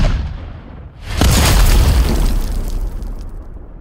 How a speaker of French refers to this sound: Lui et ses troupes se sont repliés dans l'église de Saint-Eustache. Les canons tirent à boulet rouge sur la façade de l'église, qui en garde encore les traces aujourd'hui.